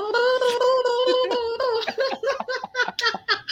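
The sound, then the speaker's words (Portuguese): A voice imitates a helicopter with the mouth during a livestream, starting with a steady, strained vocal tone that breaks into rapid, choppy fluttering pulses, loud and without other talk. “Isso daí é um helicóptero ou um chinês sendo afogado”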